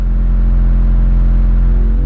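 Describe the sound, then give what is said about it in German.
A deep, steady low-frequency rumble drones loudly and continuously from large vibrators with speed-controlled rotating motors and counterweights, vibrating through the walls of a building, with no speech over it. “Mit diesen Geräuschen kann man Gebäude knacken.”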